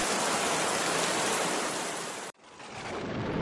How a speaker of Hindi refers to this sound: आखिर एक दिन काले काले बादल आसमान पर घेर आए और छाजो पानी बरसने लगा